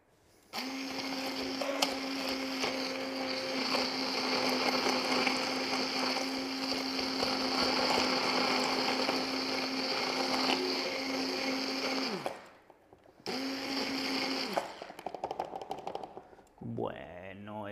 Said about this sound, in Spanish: Entonces lo tenemos ahí todo bien metido y bien mezclado con la batidora. Ahora voy a hacer un poco de ruido.